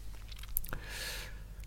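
Crunchy chewing of a biscuit, with short crackling bursts over a low steady background hum and no talking, during a late-night chat.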